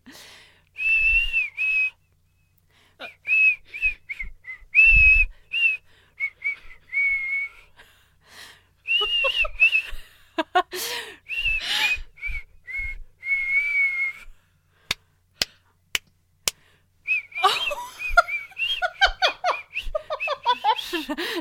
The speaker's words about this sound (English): da, da, da, okay, I can't keep whistling it.